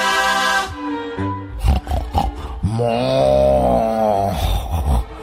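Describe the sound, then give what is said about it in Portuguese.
A man snores loudly and raggedly, deep rattling inhales stretching into long grinding rumbles with short sputtering gaps, dominating throughout. “Ai, ah, eu não aguento esses roncos”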